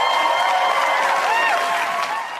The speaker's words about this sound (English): Can I can I stop and, and clap real quick for Mike Matthews?